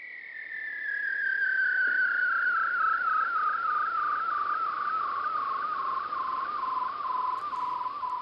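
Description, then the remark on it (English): An Arctic bearded seal's long underwater trill, recorded by Martin Stewart: a single loud warbling whistle that glides slowly downward in pitch for several seconds, steady and unbroken, with no other sounds or voices. “Now, listen to listen to its cousin, the bearded seal.”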